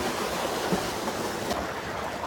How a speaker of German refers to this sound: Wir sind jetzt am Eingang der Steinwandklamm. Man hört auch schon das Wasser fest rauschen, das ist natürlich jetzt Schneeschmelze.